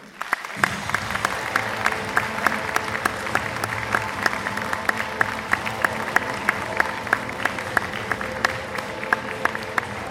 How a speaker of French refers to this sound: Je vous demande un tonnerre d'applaudissements pour Monsieur Paul Renaud.